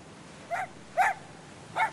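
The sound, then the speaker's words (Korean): A strange-looking white, small mixed-breed dog barks three times in quick, uneven succession while leaping at a turning water wheel, short sharp yaps at moderate volume with a quiet background and no talking. “밤새 귀를 가진 기묘한 흰 잡종개가 쓸데없이 바퀴에 대들듯 뛰면서 짖고 있다.”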